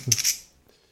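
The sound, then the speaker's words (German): A brief clatter and click of a pen being taken out and handled to write a note, lasting a fraction of a second before quiet; no voices. “Das, das schreibe ich mir sofort wieder auf. Oh ja, jetzt wieder der Stift rausgeholt”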